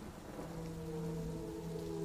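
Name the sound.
heavy rain with thunder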